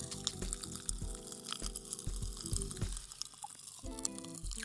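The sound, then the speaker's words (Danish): Popping candy crackles on tongues held against a microphone in a studio, a dense, fizzy stream of tiny sharp pops, mixed with wet mouth sounds and a few soft low thumps; nobody speaks. “oh, kæft, det popper her i studiet. det er det, I hører nu.”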